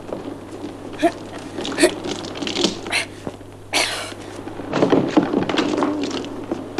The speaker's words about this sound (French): la porte est coincée. Après quelques vaines tentatives, cependant, la porte finit par céder sous les coups de Fritz et de son père.